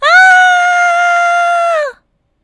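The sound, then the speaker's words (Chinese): A voice imitates a frightened bear cub's scream: one loud, high, sustained wail held steady for nearly two seconds, then dipping in pitch as it cuts off, followed by silence. “大大熊弯下身子闻了闻小小熊，小小熊突然睁开眼睛，害怕的大声的嚎叫：“啊！”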